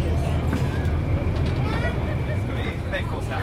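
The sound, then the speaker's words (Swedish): A steady low engine rumble fills the scene, with a busy murmur of many passengers talking at once while boarding a ferry on a breezy, partly cloudy late-summer day, amid constant vehicle hum. “Det är som en, en buss, en flytande buss här.”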